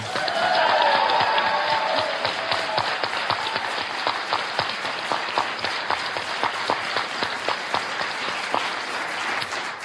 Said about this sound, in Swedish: Jag vill att ni ger en varm applåd till kvällens vikarierande musiklärare och Flumskolans alldeles egna …, Anders Flanders ensamorkester.